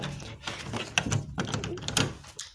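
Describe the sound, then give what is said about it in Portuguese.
A door swings shut with a thump, followed by sharp metallic clicks and rattles of a lock being turned, all in a short, busy burst. “Vou trancar a porta.”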